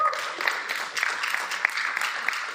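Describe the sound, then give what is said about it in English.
An audience claps together in a steady, dense wash of applause lasting a few seconds, with many overlapping hand claps and occasional sharper individual claps standing out. “We clap our hands not for how well somebody may have been on pitch.”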